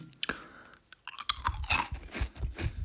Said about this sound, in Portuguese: arranjei uma forma também de vos chatear ainda mais, que é, eu ao longo do episódio de hoje, decidi que vou comer umas tiras de milho. Ou seja, vocês vão de ouvir.